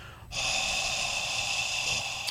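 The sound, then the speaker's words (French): A person forces out one long, steady, loud hissing breath, imitating a reptile's powerful exhale. It holds for about two seconds with no talking. “Et ce souffle-là, c'est le souffle de la puissance.”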